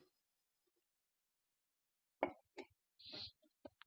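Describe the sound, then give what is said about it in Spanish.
After a long quiet stretch, someone finishes a long sip of beer, with a wet pop as the lips leave the bottle, a couple of swallowing clicks and a breathy exhale. “Después de ese trago largo de eh, cerveza”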